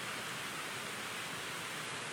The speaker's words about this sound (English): It's okay to have rain, but when the wind picks up, which it wasn't supposed to do, it could put our broadcast equipment in jeopardy here.